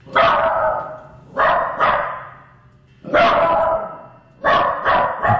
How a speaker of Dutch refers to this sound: Ja, dit is eigenlijk een hond die eh, verontrust is. Je zou dat een alarmblaf kunnen noemen. Maar ook wel wat bang is. Hij heeft iets gehoord. En eigenlijk is hij een beetje een alarm aan het slaan.